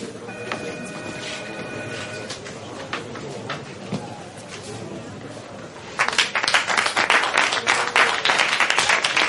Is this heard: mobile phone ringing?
no